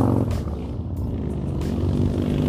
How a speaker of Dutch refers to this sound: oh, even wachten tot de motors voorbij zijn, ja.